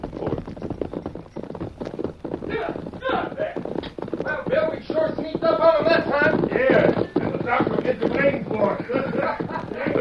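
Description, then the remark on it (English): Two horses gallop past with a rapid, steady clip-clop of hooves, loud, mixed into a dense wash of other sound that continues throughout. “Two horses come.”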